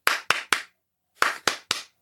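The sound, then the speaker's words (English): Six sharp hand claps in two quick groups of three, separated by a brief pause, with a steady, rhythmic pattern and no talking, as a screaming crowd of townspeople claps in exact cycles of six. “The crowd, and this is every person that you've seen in town, and they are screaming, and they are they are they are clapping, but they are clapping exactly”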